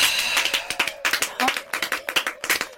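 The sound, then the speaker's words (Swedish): Brisk hand clapping from one person, a judge applauding in a quiz competition, quick irregular claps running steadily through the whole stretch, moderately loud with a faint murmur of voices underneath. “Ska domaren applådera?”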